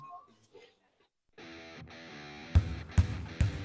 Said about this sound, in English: That's the sound of winter in one of the Forest Youth Athletic Association's most popular sports, basketball.